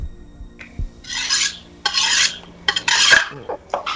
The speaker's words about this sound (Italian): l'acciarino, eh. l'acciarino. È per affilare i coltelli. È l'acciarino, Dice sì, acciarino.